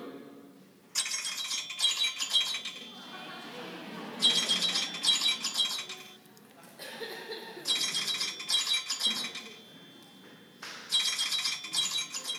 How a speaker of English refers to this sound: How many of you love the sound of money? How many? Yeah, you, you really like the song. I know, I know a lot of you don't like the sound of coins, but you do like the sound of gold coins. So if you can't see what's in that bag, it's gold coins, okay?